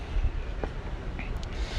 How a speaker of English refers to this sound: All right, we're lighting up. We're firing up the second propane to cook the corn now.